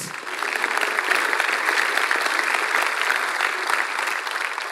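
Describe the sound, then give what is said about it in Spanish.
An audience at a television show claps steadily for two people for several seconds, a dense, even wash of many hands with no pauses and no voices rising above it. “Démosles un aplauso a los dos.”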